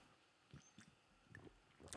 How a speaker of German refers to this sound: jetzt nehme ich gleich einen Schluck Wasser.